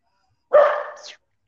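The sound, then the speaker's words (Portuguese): A single loud dog bark, lasting just over half a second, with a slightly strained, rising tail at the end, the dog barking at the neighbor; no other sounds around it. “Não, ele latindo pro vizinho.”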